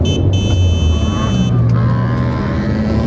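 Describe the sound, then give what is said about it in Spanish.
A car overtakes on the right on the road, its engine and tire rumble loud and steady for a few seconds, with a thin high whine in the first half. “¿Por qué rebasas por la derecha?”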